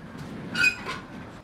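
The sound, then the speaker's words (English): Metal roll-up doors at a park rattle open with a brief, high metallic squeal in the middle, a short grinding burst over a low background rumble, with no one talking. “And when the doors come up,”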